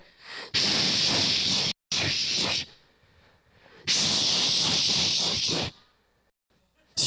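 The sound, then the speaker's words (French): A voice imitates a cymbal with a loud, sustained hissing "tsss" wash, in three bursts: two short ones back to back, then a longer one, separated by brief silences. “Cymbale, ça fait du bruit, hein? Surtout quand David il joue, hein? Une cymbale, ça fait du bruit.”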